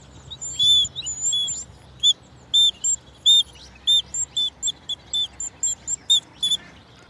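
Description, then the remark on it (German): A mini bird whistle, played by an unskilled player, gives a run of about a dozen short, shrill chirps in quick, slightly uneven bursts. The chirps are fairly loud, with no talking. “Ich bin leider kein begabter Vogelpfeifenspieler. Ist auch gar nicht so leicht, wie ich mir das vorgestellt habe mit dieser Mini-Pfeife.”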